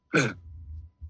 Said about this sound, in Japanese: まあそれでちょっと向こう今冬んであのその寒暖差でちょっとやられて僕今喉をさっきから咳しててすいません。